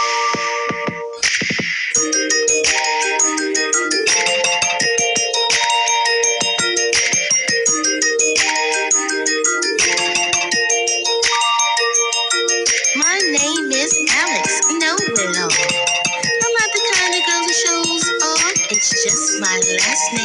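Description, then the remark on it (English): A bright, bouncy tune plays through a small phone speaker, with tinkly, chiming melody lines and a steady beat continuing for about twenty seconds at a fairly loud level. “Let me crank up my phone real quick and um, let you hear a little bit of the the music.”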